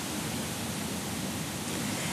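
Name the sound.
flowing stream water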